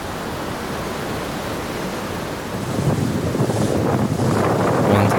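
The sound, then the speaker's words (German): Steady ocean surf at Manhattan Beach in Los Angeles rushes and hisses with wind buffeting the microphone, swelling louder about halfway through as waves wash in; no voices. “Hallo ihr Lieben, ich habe mich anlässlich dieser Folge mal an einen unserer Lieblingsstrände hier in LA gesetzt, den Manhattan Beach.”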